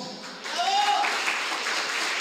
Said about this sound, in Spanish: Da un aplauso a Cristo.